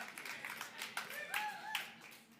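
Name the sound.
audience clapping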